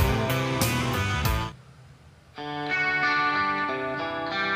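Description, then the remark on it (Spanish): Electric guitar with a clean tone and a light wash of reverb: a few ringing strummed chords, a short pause, then sustained chords that fill the space. No one speaks. “Guitarra clean, un poquito de reverb.”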